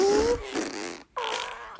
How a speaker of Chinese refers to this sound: 放屁大王…很会放屁哦。